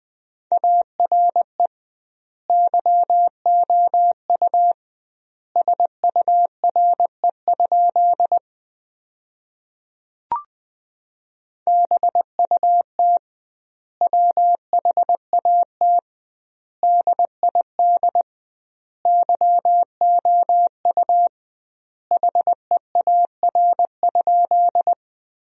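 Morse code sent at 20 words per minute as a steady, mid-pitched beeping tone in quick dots and dashes, spelling sentences built from the 300 most common words, with doubled word spacing giving clear pauses between words. A single short click interrupts midway.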